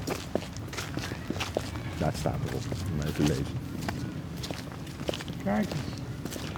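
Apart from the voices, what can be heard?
footsteps walking outdoors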